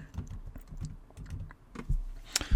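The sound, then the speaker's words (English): Rapid clicking of keys on a computer keyboard while a campaign name is typed into a web form, a steady run of crisp keystrokes with a few louder taps near the end, no voices. “And as you've been typing that, you'll notice that the URL has automatically been created.”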